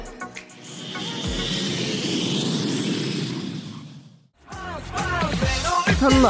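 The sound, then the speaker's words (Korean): A loud jet roar, a steady wash of rumble and hiss like an airplane taking off, holds for about four seconds, drops out abruptly, then music starts. “자 비행기 이륙합니다. 갑니다.”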